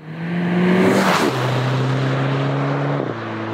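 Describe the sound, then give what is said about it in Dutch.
A sixth-generation Volkswagen Golf GTI engine pulls hard under acceleration, its steady droning pitch dropping abruptly twice as the DSG gearbox snaps through quick upshifts. Loud, with no voices. “Dit is een Golf, volgens mij Golf uh, 6 uh, ja, GTI.”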